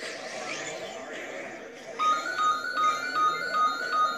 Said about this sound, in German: Okay, bei uns klingelt gerade das Telefon. Ich habe gerade leider null Zeit dafür.